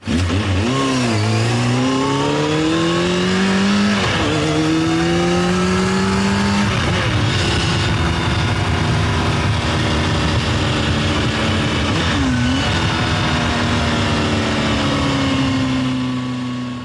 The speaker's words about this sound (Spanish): Este es el sonido, el sonido de las motos, de los pingüinos que ya llevan unos días haciendo rugir sus motores en Valladolid. La concentración invernal, una de las más importantes internacionalmente, comenzó ayer de forma oficial.